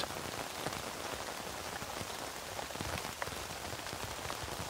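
Steady rain falling on a tent, a dense, even patter of countless drops with occasional sharper taps, constant in level throughout with no voices.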